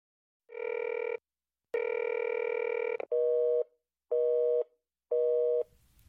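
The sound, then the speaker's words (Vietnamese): A phone line's tones ring out clearly: two longer steady beeps, then a rapid series of short, evenly spaced busy-signal pulses, loud with no one talking, as a call to a company's switchboard number listed on its website comes up busy. “Nhưng điện thoại tổng đài ghi trên trang web lúc nào cũng trong tình trạng đang bận.”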